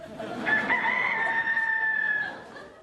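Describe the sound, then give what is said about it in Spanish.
A rooster crows once, a loud, drawn-out cock-a-doodle-doo rising and then holding for about two seconds before trailing off, clear with no talking. “Bueno, el veterinario cree que se está convirtiendo en un gallo.”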